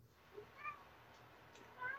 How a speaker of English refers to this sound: Sorry, there's another meow meow kitten in here.